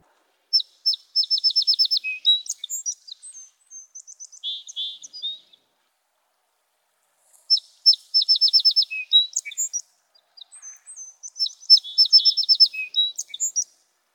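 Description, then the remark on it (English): Song sparrows trade bright, buzzy songs back and forth: two clear phrases, each opening with sharp notes and a rapid trill, separated by a short silence. No talking. “And then the birds began singing that one back and forth.”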